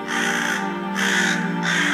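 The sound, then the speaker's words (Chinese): A crow caws three times in a row, each call loud, harsh and raspy, drawn out for over half a second with only brief gaps between them and no voices. “很久很久以前，在整个世界刚刚出现的时候，有一只乌鸦。”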